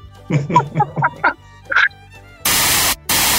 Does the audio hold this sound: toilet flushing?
no